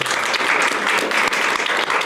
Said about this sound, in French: Et puis à ma droite, enfin à la droite de l'échiquier depuis ma position, alors Romain Maréchal, on peut vous applaudir.